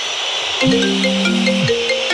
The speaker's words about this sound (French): À vous de trouver le dernier dès que vous entendez cette sonnerie